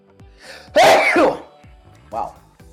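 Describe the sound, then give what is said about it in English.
A single loud sneeze, brought on by cold weather in Michigan, bursts out as a sharp explosive rush of breath followed by a softer exhale, with faint voice sounds around it. “Get a good sneeze out, right?”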